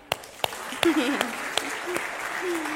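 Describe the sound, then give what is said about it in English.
An audience claps for a woman married to the same man for 22 years, a steady wash of applause broken by a few louder, sharper individual claps, with a brief voice or murmur rising over it partway through. “Let's clap for that.”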